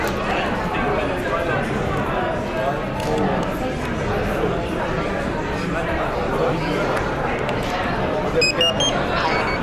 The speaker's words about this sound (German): Die ersten drei genau. Pieptöne waren das Einschalten.